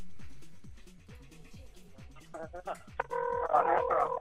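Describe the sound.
A telephone starts ringing partway through, its bright electronic tones rising into a loud, steady warble that continues to the end over a low, rhythmic background and some voices.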